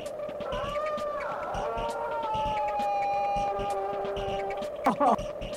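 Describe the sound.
A voice lets out a drawn-out, exaggerated comic groan, a Monty Python-style scream as if dying after being stabbed, made while goofing around during a recording. It wavers and slides in pitch like a theatrical dying wail, ending in a short strained cry near the close.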